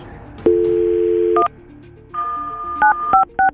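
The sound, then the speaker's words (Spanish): A phone number is dialed: a steady dial tone hums for about a second, then a string of short, bright keypad beeps sounds at an uneven pace, with no one talking. “De tu teléfono vas a marcarle a él”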